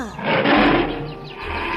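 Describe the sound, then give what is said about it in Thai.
A tiger lets out a deep, rumbling roar that swells and holds for nearly two seconds, loud, with no voices around it. “เสือได้คำรามแล้วพูดออกมาอีกว่า”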